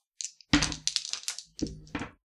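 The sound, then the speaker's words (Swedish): Two dice are rolled for a work-under-pressure check in a game, rattling and clattering across a hard surface in a quick burst of sharp clicks, pausing briefly, then tumbling again with a second shorter flurry of taps before settling. “Och får jag slå två tärningar för, min, eh, för arbete under press?”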